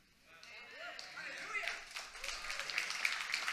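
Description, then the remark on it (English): Modest, scattered applause from a church audience that starts thin and builds into a steady patter of claps, with a few voices calling out and murmuring underneath. “Not the greatest applause I've ever heard right there.”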